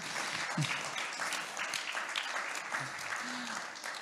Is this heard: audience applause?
yes